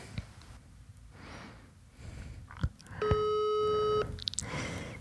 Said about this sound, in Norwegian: Så du har ikke tid til å ta telefonen?